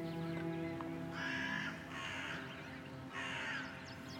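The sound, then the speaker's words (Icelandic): Several harsh caws from a black swarm of crows and ravens ring out in bursts over a steady low hum, the calls coming in about three broad, raspy clusters with no talking. “Í kringum hana yðar svartu sveimur af krákum og hröfnum.”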